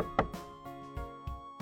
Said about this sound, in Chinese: 老婆，开门！我继续敲门，仍然没有回应。